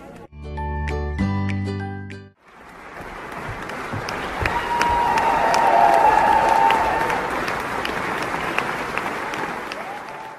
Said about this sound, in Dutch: Jullie hoorden het daverende applaus. Het was ook een geweldige voorstelling.